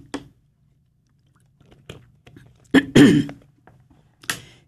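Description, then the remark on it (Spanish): Quiet mouth sounds of someone taking a sip of water: a few soft clicks and smacks, then a louder slurp and swallow midway, and a final faint smack. No one speaks. “Y si me permiten, voy a tomarme un traguito de agua.”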